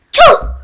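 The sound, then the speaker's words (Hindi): A voice imitates the very loud sneeze of the girl from the Sneeze Express: one abrupt, forceful, loud burst that quickly fades into a brief breathy tail. “छींक एक्सप्रेस वाली लड़की चिंकू ने बहुत जोर की छींक मारी थी कैसे होती है आवाज बहुत जोर की छींक की”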